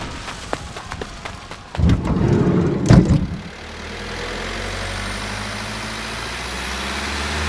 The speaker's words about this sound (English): There was a blinding flash, and then the food lab was gone. Flames exploded in all directions across everyone standing outside as the giant glass windows blew out.